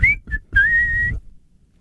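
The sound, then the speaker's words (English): A person whistles three short notes: a quick rising chirp, a brief blip, then a longer steady held tone, fairly loud, with no talking. “Whistle.”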